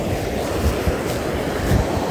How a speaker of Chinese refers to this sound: 听到这个水流声了吗？我们就路过了这个小河边。